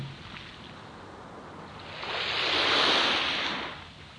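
Ocean waves wash ashore in a steady hiss of surf, with one wave swelling up loudly midway and then slowly receding. No voices are heard.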